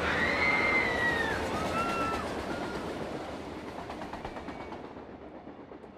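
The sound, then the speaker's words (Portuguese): A train pulls in to a station with a loud, steady rumble and high, wavering brake squeals that fade as it slows, leaving a softer rhythmic clatter of wheels. No one speaks. “era um curta mostrando a simples ação de um trem chegando a uma estação”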